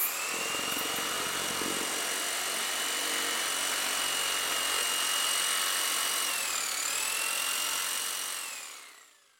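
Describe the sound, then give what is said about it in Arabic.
A loud, steady mechanical buzz drones continuously with a high whining pitch that dips briefly near the end before fading out. No one speaks. “بس ذاك صوت الطنين الغريب كأنه شوكة مزعجة في قدمك”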